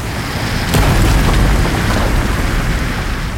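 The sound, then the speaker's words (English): A loud, continuous roar of sea water rushes through the maze of tunnels of a mine, with a heavy low rumble throughout and a sharp crash early on, no voices. “And then the more terrifying sound as the sea swept through the maze of tunnels.”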